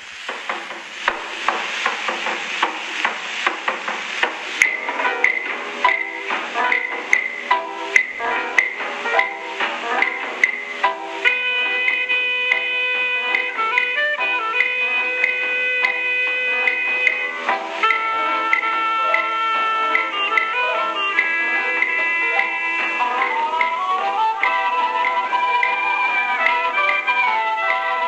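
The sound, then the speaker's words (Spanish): A Cuban jazz-style instrumental tune in an early Latin jazz style with a 1940s feel opens with busy, crackling percussion, then settles into steady, bright melodic lines over sustained harmonies at an even, moderate loudness. No one speaks. “esta rola obviamente ya nos trae una vibra más que es es cubana, ¿eh?”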